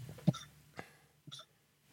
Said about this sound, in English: Bless you.